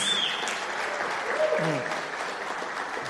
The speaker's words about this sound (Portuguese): E, as duas que são. Aplausos para elas.